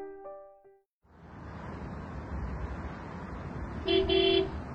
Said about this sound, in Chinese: 周围响起彻耳的鸣笛声，降下灯光璀璨的夜幕。几辆汽车急速的从二人前后穿过，带起风